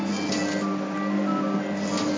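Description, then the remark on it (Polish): A tinny electronic jingle melody plays steadily from a small German vending van in Bucharest in winter, fairly loud and continuous throughout, with no one speaking over it. “ja te melodia znam z programu Pierwszego Polskiego Radia”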